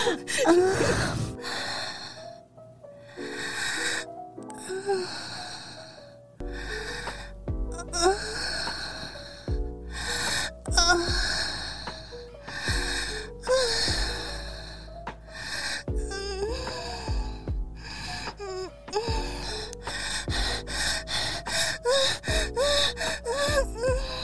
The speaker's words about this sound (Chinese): 气息的声音。